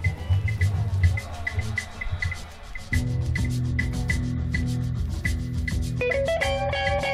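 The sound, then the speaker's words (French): An upbeat big beat remix of a 1950s jazz song, with crisp, steady drum hits over a thick, looping bassline. A brighter melodic line rises in near the end, and no one speaks. “donc un album jazz des années 50, qui est remixé en mode big beat et c'est très très rigolo.”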